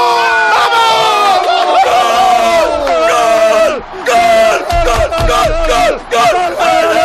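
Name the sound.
stadium crowd roaring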